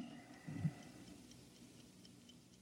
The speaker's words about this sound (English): You hear something? No, darling. You sure? Like what? Like the Ticking of a clock? No. Strange. I don't hear it now, but when I had my ear against your chest.